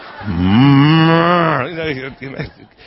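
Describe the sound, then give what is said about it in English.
A person imitates a lamb's bleat with one long, loud, drawn-out 'baa' that sounds almost like a low moo, followed by a few brief murmured voice sounds. “What's the lamb say? No, ba. Ba. Yeah, there you go. It's like a baby cow or something.”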